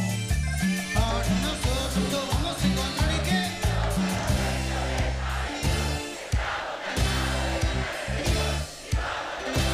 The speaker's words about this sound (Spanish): Y canta esa gente, ¿me escuchás?